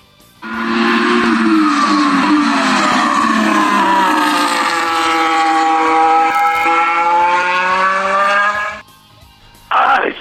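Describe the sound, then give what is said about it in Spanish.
The engine of the Red Bull RB18 Formula 1 race car, driven by Max Verstappen and Sergio Pérez, fired up for the first time in practice, revs loudly and steadily for about eight seconds, its high-pitched whine sweeping down and back up, then cuts out before a brief burst returns at the end. “Hoy se encendieron los motores por primera ocasión ya en las prácticas y así suena el RB18 que estarán pilotando Max Verstappen, el campeón, y Sergio Checo Pérez.”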